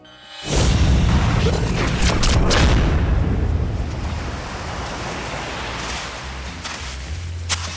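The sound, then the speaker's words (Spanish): Waves wash onto a beach in Croatia in a broad, steady roar of surf. They swell loudly at the start, then settle into a continuous hiss with low rumbling underneath. “que está muy bien esto de llegar a los destinos urbex paseando por la playa.”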